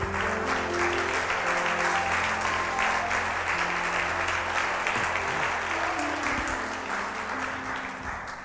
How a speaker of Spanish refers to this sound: Dale un aplauso a Jesús con todo tu corazón.